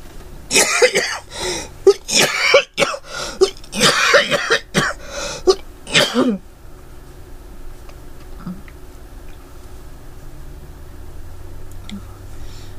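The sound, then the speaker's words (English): A loud fit of harsh, wet coughing up mucus, roughly eight bursts in quick irregular succession over about six seconds, then it falls off into quiet room tone. “I just coughing up the wonderful thing of mucus.”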